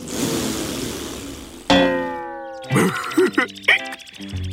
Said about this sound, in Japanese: そういった瞬間クルルはプーッと臭いおならをしてしまいました